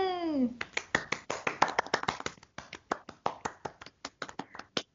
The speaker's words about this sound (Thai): ปรบมือ